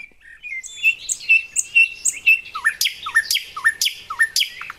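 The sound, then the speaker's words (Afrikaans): A small grey songbird sings a clear, lively song: bright whistled notes first, then a quick repeating series of rising chirps and trills. No voices accompany it. “En almal kyk afwagtend na die klein grys voeltjie. Sy gaan sit op die platform en begin sing.”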